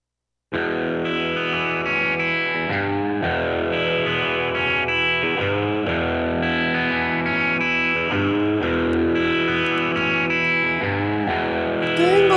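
Heavily distorted electric guitar plays thick, sustained chords that shift every second or so, holding a steady, loud, dense wall of sound after a brief silent start, with no voices.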